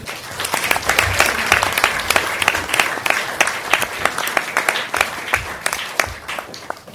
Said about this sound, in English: Thank you, everyone, and can I have a round of applause for all our guests?